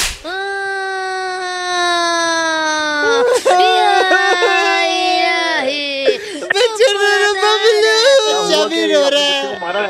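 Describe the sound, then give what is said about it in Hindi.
A baby wails loudly and continuously in a police station, long sustained cries broken by short gasping breaths and sobbing hiccups, growing more ragged and intense toward the end. “भाई मेरी बीवी भी रो रही है ये बच्चा भी रो रहा है”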